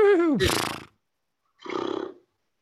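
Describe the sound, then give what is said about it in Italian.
A person imitates a horse neighing: a falling, strained whinny that breaks into a breathy blast, then after a short pause a fluttering, snorting whinny. Loud, with no other sounds. “Faccio il cavallo.”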